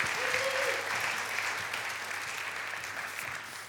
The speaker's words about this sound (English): Give her another clap.